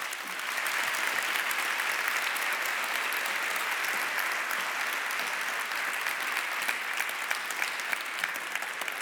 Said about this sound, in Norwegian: Og vær så god, en god applaus til deg.